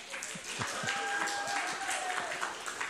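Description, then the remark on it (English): An audience claps steadily, a dense patter of many hands with a broad crowd murmur underneath and a faint thin tone running through the middle. “Anything else you want to clap about before I keep going?”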